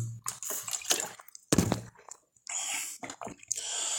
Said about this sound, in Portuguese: Bebeu uma água também, porque ninguém desferra, né?